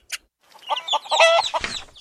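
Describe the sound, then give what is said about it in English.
Hens in a hen house clucking in a quick run of short, throaty notes that swell into a louder, drawn-out squawk before trailing off, with a brief high chirp just before. “Cluck, cluck went the hens. That's how hens say hello, you know.”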